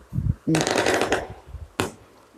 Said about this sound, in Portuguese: Sim, gente, eu não tô gravando de madrugada hoje, por isso que teve barulhos de fogos agora. Eu não sei se deu, deu pra vocês ouvir ou ficou só o um ruídozinho no fundo. Mas sim, teve barulho de fogos.